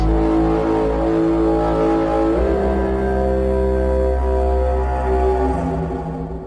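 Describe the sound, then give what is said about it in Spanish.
A skyquake: a loud, continuous low rumbling drone with a steady, brassy hum that shifts slightly upward in pitch partway through, then begins to fade at the end. “Los científicos lo llaman cielomoto y explican que es el sonido que se emite cuando se produce un terremoto en el cielo.”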